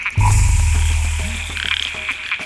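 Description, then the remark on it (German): Male frogs calling: a loud, deep frog croak, a sustained low call with a rattling texture, while higher chirping frog calls pulse repeatedly in the background. “Es ist der Frosch.”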